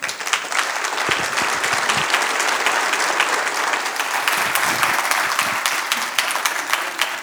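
A large audience applauds steadily to welcome a speaker, a dense wash of many hands clapping at once, sustained and fairly loud for several seconds with no talking over it.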